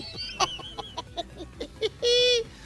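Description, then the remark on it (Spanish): Small pet canaries in an aviary chirp in a series of quick, sharp peeps, ending in a longer, brighter warbled call, with no talking over them. “No, son canarios”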